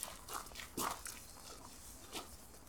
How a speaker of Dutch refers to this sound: Dan lopen we over een eh, houtsnipperpad om het huisje heen.